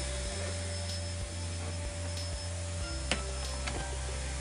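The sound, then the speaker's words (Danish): A vacuum cleaner drones steadily throughout, a constant motor hum with a high whine, plus a couple of faint clicks near the end. No one speaks. “Kan du ikke lige slukke støvsugeren og skrue ned på musikken, indtil jeg er færdig med at sende live?”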